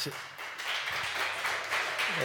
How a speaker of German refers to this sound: das ist der verlängerte Applaus, um den Weg hierauf abzukürzen. Herzlichen Dank.